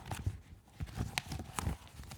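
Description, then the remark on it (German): Pages of a print magazine, The New Yorker, rustle and crinkle in a series of irregular, crisp bursts, some sharp and papery, with no voices over them. “Da raschelt was. Das ist ein Printerzeugnis.”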